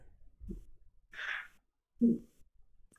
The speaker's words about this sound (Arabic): اه عطست الحمد لله